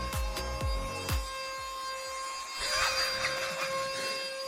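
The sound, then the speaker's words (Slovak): A vacuum cleaner drones steadily with a whining motor tone and airy hiss, joined by a few sharp knocks and bumps at the start as someone vacuums in a radio studio during a live broadcast. “Môžete potom vysávať, teraz vysielame, ak by sme...”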